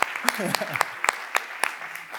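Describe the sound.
Audience applause for an audience member standing up to ask a question: sharp, fairly regular claps, about eight crisp hits over two seconds, with a brief murmur of voices at the start.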